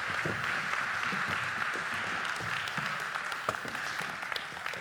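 Steady, dense audience applause fills the whole stretch, a bright wash of many hands clapping with occasional sharper individual claps standing out, holding a fairly even level throughout.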